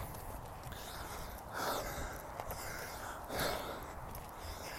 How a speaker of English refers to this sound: We're walking up a big hill. So if I'm breathing heavy, I am happy to talk to you, but I'm breathing heavy because I'm walking up a hill.